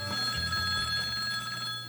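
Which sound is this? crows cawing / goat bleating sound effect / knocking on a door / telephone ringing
telephone ringing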